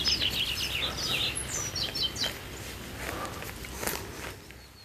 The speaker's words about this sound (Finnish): Jotkuthan kuulee tällaisia eh, linnunlauluja voimakkaana ja, ja monipuolisena ihan kotisohvalle asti, että ei tarvitse avata ikkunaa tai, tai tota, vähän parvekkeen ovea, niin tarvitse sen pidemmälle lähteä ollenkaan.